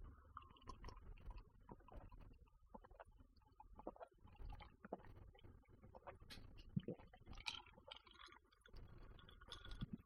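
Wet swallowing and gulping sounds of someone drinking liquor mixed with ginger ale, recorded right by a smartphone microphone: a series of throaty gulps with small clicks and mouth noises, quiet with no talking.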